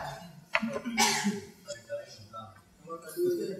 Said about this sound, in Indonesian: Ada pertanyaan? Berdehem, dehem Hem.